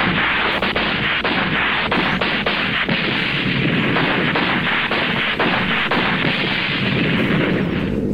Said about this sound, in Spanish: Uf, hemos librado, menos mal, eh, casi me atizan. He tenido que disparar un poco y al final he tenido que derribarlos.